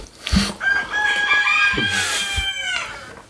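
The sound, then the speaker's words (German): A rooster crows loudly, one long drawn-out call, while hens cluck around it in the background at a chicken breeding flock. “Und darum auch die Hintergrundgeräusche, mhm. weil sie sind gerne im Vordergrund.”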